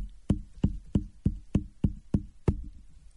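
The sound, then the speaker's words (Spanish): Eight sharp knocks on a hard surface, tapped out to imitate an irregular heartbeat with premature beats (extrasystoles), mostly evenly spaced but with a slightly longer pause before the last one. No one speaks. “sí la llegan a sentir y llegan a decirte que la, que la sienten irregular, que no lleva un ritmo como tal, es lo que te pueden llegar a decir.”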